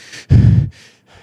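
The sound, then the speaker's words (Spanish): A voice imitates the labored, heavy breathing of a 30 to 35-year-old patient sitting with a reservoir oxygen mask at 15 liters per minute: a soft inhale, then one loud, rasping breath, followed by quieter wheezy exhales, alone with no talking. “así, respirando con mascarilla de reservorio a 15 litros por minuto y cansado.”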